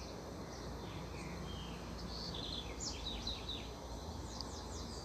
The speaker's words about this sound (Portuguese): Estão escutando o canto dos pássaros? Delícia, né? Eu estou no Rio de Janeiro, né? Eu moro no Rio de Janeiro, em Santíssimo. Outro barulho é dos carros lá fora. Mas esses pássaros aí amanheceram cantando aqui na minha janela.